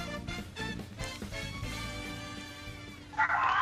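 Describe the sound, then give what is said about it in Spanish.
Pet dogs barking and yipping at low volume as they move around among each other, with a run of high, excited yelps near the end and steady harmonic whining underneath. “Ah, creo que mis perritos se están volviendo locos.”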